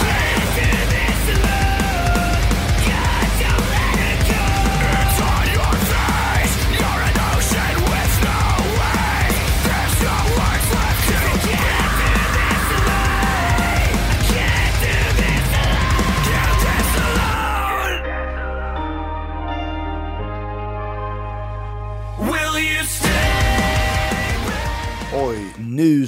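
An American metalcore band from Tyler, Texas plays loud, dense heavy metal with distorted guitars, pounding drums and harsh screamed vocals, dropping briefly into a sparser melodic passage with sustained tones before the full band crashes back in.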